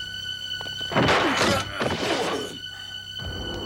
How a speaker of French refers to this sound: Monsieur Bergamote Monsieur Bergamote Il ne répond pas. Enfonçons la porte